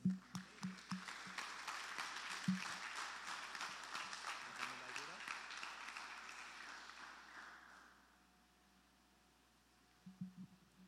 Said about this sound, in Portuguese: Em nome de Jesus, Senhor, te agradecemos, te aplaudimos, Pai. Amém.